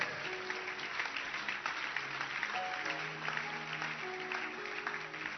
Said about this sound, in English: Clap your hands for her.